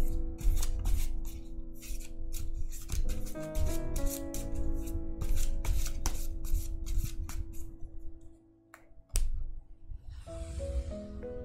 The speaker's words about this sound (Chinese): 好，来洗牌一下。